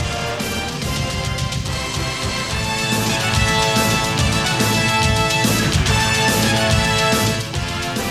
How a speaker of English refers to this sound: Yes, CBS Sports, when they got the rights to the SEC, generated this theme, which is now their overarching college football theme for CBS and CBS Sports Network. This is an all timer, too. Again, I love that up tempo, very punchy.